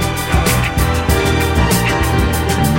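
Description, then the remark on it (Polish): Lush soul orchestra music plays loud and full, with sustained strings and a steady, driving beat of regular percussive hits underneath; no voices. “To, co słyszymy, to jego zawsze genialnie brzmiąca orkiestra.”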